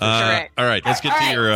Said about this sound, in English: And I'm sorry about my dog barking in the background.